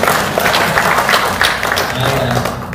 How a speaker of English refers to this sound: And as you may be aware, this is our last sermon on this prayer series. Let's give us a round of applause for sticking with us.